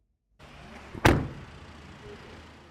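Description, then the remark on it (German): The door of a modern VW van is slammed shut once by its chauffeur in Davos, with a sharp, heavy thud, then a short rumbling decay, set against a steady low background hum with no voices. “Für alle Wave-Gäste macht er Türen auf. Und wenn sie drinnen sind, auch wieder zu.”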